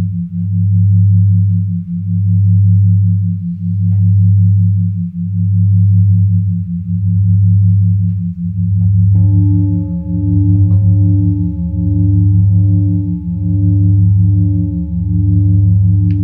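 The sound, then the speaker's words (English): Healing frequency tones layered on top of the phi ratio: a deep, steady hum swelling and fading in slow pulses about every two seconds, with higher pure tones layered on partway through, pulsing in step. No talking. “So if you can listen to it through your ears and through your mind, why not vibrate these frequencies into our bodies? layered on top of the phi ratio.”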